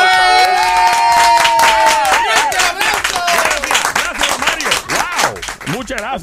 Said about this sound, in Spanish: Un aplauso para yo. ¡Eh!